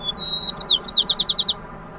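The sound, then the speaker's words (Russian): A white-crowned sparrow in San Francisco sings one short song, a thin clear whistle followed by a quick run of about eight buzzy, descending chirps, clear with no voices. “Белогорлые воробьи из Сан-Франциско во время пандемии стали петь примерно так же низко и сексуально, как 50 лет назад”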